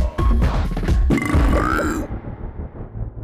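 A long, loud burp, deep and rumbling, starting with a short throaty burst and then dragging out for a few seconds before trailing off. No one speaks.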